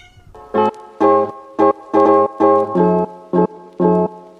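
A cat meows about eight times in quick, evenly spaced succession, each call short, loud and close, with no talking around it.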